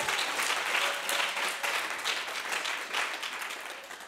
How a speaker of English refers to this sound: So, round of applause. Can we do that? Bless you guys.